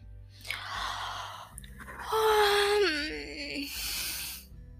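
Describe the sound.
A long, drowsy yawn on waking up in the morning: a breathy intake opening into a voiced, wavering tone that slides downward and trails off into an airy exhale. No one speaks.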